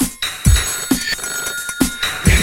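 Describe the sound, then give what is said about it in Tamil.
A telephone bell rings steadily and fairly loud, its bright tones sustained over a quick, regular pattern of low thumping beats, like a ringing effect set to a rhythmic musical backing. “telephone அடிக்குது telephone அடிக்குது telephone அடிக்குது ரிங் ரிங் ரிங்”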